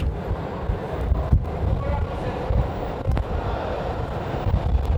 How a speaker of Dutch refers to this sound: Kijk, nu voel ik een wind. Dat betekent dat er een eh, metro aankomt.